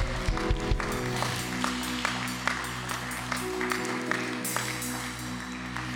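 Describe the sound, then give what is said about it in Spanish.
An audience applauding God steadily, a dense wash of clapping with scattered sharper claps standing out, over a sustained low musical drone that runs throughout. “Den ese aplauso a Dios.”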